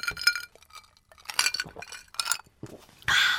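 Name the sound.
glasses clinking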